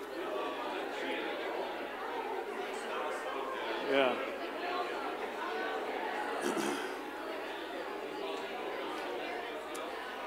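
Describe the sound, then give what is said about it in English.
An audience chatting before a church service, with many overlapping voices blending into a steady, even murmur. Now and then one voice briefly rises above the crowd. “It sounds kind of beautiful, though, you know, the talking of everybody.”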